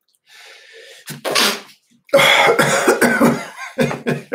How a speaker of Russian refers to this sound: Прошу прощения. Я не на вас чихаю, просто вот как-то так вышло.